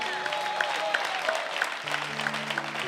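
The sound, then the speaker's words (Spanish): A crowd applauds the Lord steadily, a dense wash of many hands clapping at once, with a few sustained low musical tones sounding beneath it toward the end. “Dale, dale un aplauso fuerte al Señor.”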